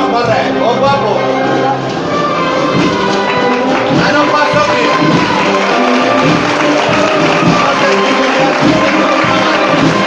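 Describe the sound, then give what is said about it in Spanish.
A dense neighbourhood crowd shouts vivas and cheers continuously as a religious procession float of the Virgin is carried out of a church into the street. Many overlapping voices call out loudly for the whole stretch, with no pause in the noise. “la gente, el barrio, que no puede esperar a que esté la Virgen del Mayor Dolor en la calle, ya llueven los vivas”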